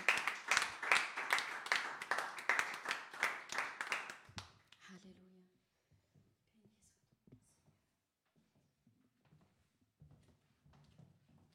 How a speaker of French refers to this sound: Est-ce que notre Dieu ne mérite pas un applaudissement Alléluia.